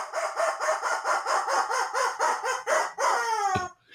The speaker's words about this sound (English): really? The rubber chicken says.